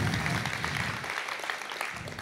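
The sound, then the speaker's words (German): Steady audience applause for the worship leader fills the whole stretch, a dense crackle of many hands clapping at an even loudness with no voices over it. “Applaus für den Worshipleiter, das hat er gut gemacht.”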